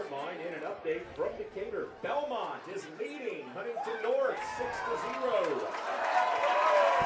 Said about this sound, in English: Good for them. Good for the defense. Good cheer from the crowd there from Am Central.